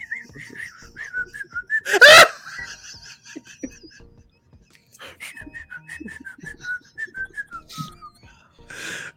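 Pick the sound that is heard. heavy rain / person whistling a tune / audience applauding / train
person whistling a tune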